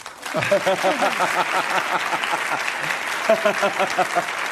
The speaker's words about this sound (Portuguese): Gostou da frase? Pode aplaudir.